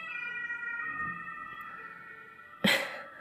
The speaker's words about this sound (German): Ich weiß nicht, ob ihr den Rettungswagen gerade gehört habt.